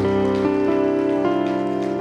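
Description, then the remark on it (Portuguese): A church audience claps for Jesus in a dense, continuous patter that holds for the whole moment, with sustained keyboard or organ chords ringing underneath. “Se você está contente, eu gostaria que você desse uma salva de palmas a Jesus por essas vidas.”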